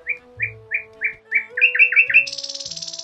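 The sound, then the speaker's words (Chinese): A nightingale sings alone: a run of five or six evenly spaced, bright whistled notes, then quicker overlapping phrases that break into a rapid, high-pitched trill. “这时，远处传来美妙的声音”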